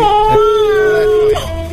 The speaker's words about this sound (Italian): Così il bambino piange, però se non prendete il telefono, eh?